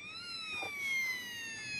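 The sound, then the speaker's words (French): A child's toy fire truck siren plays alone: a steady, high electronic wail with buzzy overtones, its pitch sliding slowly downward, plus a brief crackly burst partway through. “Voilà, je vous la fais écouter. C'est une voiture de pompier.”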